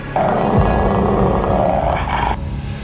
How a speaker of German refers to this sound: Das ist der Rottweiler von meinem Onkel. Sie wissen sofort, in welcher Stimmung dieser Hund ist.